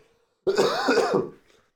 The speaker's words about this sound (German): Oh mein Gott, ich muss husten.